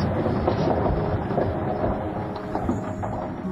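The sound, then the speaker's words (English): A train rolls steadily past in a rail yard near the railroad offices, a continuous heavy low rumble with faint metallic clatter, loud throughout, with no voices. “We were near the railroad offices, where Robert Hudson and I stood, overlooking the thickest part of the yard.”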